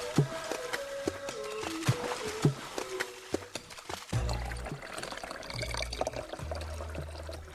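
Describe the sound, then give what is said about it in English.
Water pours into a glass, its gurgling tone climbing as the glass fills, followed by a deeper, steadier splashing pour with no voices. “This is uh, the, the water reward at the end of a, a thirsty day, a busy day.”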